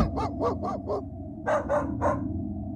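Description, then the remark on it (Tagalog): A rapid series of sharp barks from several dogs, four quick ones followed by three more after a brief pause, loud, with a low rumbling hum underneath. “Nanginginig ang katawan ko na lalo pa akong natatakot dahil sa tahulan ng mga aso namin.”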